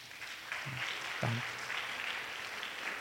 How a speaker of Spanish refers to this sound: Ya está bien, gracias. Un aplauso aquí.